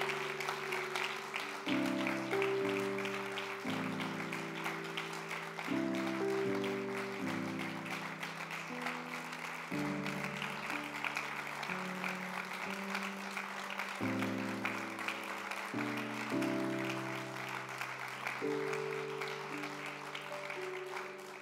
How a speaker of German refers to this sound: Und, und ich möchte, der du hier bist, ich möchte euch bitten, ihnen einen Applaus zu geben dafür. Applaus